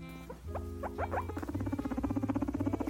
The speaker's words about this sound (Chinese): 这个声音通常是一只天竺鼠会对另一只天竺鼠发出来的声音。 或者是公天竺鼠对母天竺鼠求欢的时候发出的声音，只是他们会互相摩擦，然后发出这种声音。